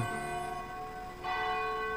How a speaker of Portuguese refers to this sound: Momento que toca o sino da Catedral de Nossa Senhora de Aparecida